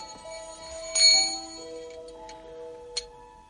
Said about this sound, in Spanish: Suenan las campanas.